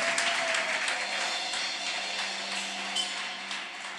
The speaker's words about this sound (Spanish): Aleluya, dale un aplauso al rey.